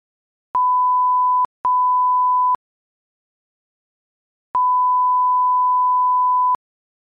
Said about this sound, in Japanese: で、これもですね、実際に体験してほしくてですね、まあ、こんな感じの音声を作ってきました。で、この後流していくんですけれども、まず最初に分断されたやつ、ピー、ピーってやつが流れて、で、その後一続きのピーっていうやつが流れます。じゃあちょっと流していくんで聞いてみてください。